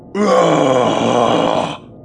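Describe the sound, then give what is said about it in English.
A single enraged roar, voiced by a person, as he tears the unsecured cover off an access hatch near a communications console: loud, low and guttural, held steadily for about a second and a half before cutting off. “Leaning down, he tore off the unsecured cover of an access hatch and roared.”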